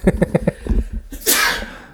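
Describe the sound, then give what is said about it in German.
A single loud sneeze: a short run of quick breathy catches building up, then a sharp burst of hissing air that fades out. “Gesundheit.”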